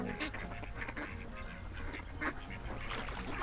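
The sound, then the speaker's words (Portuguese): A flock of ducks and geese quacking and honking together in a busy, continuous chorus, with flapping wings as they fly off, loud throughout. “Depois, eles deram capim e maçãs para os patos e gansos, mas eles bateram suas asas e voaram.”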